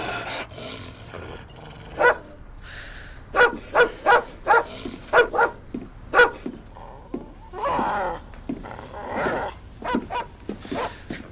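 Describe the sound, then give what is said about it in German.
A neighbour's dog barks agitatedly in a rapid, insistent series of sharp, loud barks, followed by a few whining, yelping sounds and scattered quieter barks. “Der Nachbarhund spielt verrückt, seit sechs Freundin umgebracht wurde.”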